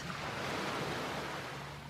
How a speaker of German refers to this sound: Auf einmal ist eine Stunde vergangen, in der man einfach nur auf die Wellen geschaut hat.